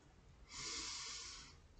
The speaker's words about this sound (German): Wenn ihr soweit seid, schließt eure Augen und fokussiert euch auf euren Atem. Atmet tief ein